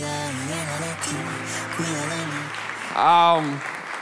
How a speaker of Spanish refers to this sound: Un aplauso